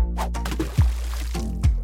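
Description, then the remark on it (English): Water sloshes and splashes in a tub, with two low, heavy plops about a second apart as a potato drops in and sinks, followed by soft trickling. No one speaks. “Let's stick the potato in the tub of water again and see if we notice anything.”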